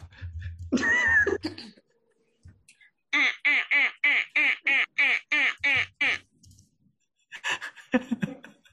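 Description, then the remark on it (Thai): A person imitates a duck with a quick run of about nine nasal, raspy quacks in a steady rhythm, loud, with a brief vocal sound before and after. “ขอเสียงเป็ดครับ”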